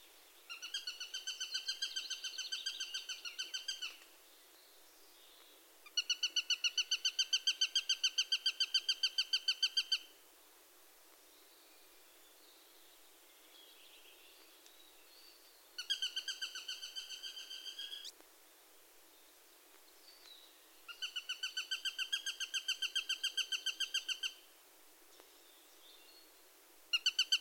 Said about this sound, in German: Hören wir uns kurz den Warnruf des Sperbers an.